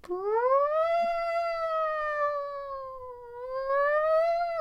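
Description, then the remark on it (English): A single voice imitates a turning school tornado-drill siren, a long steady wail that rises at the start, holds for about four seconds, dips slightly, then swells again. It is fairly loud, with no talking. “because it was a siren that turned.”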